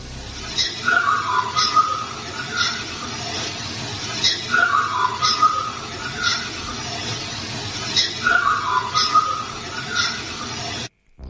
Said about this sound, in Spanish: y el tic-tac del reloj, bueno, acompañando ese silbido. ¿eh? eh es tremendo el tic-tac, es tremendo.